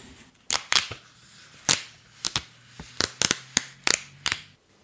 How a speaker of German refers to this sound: Und jetzt trenne ich die Blätter wieder für euch auf.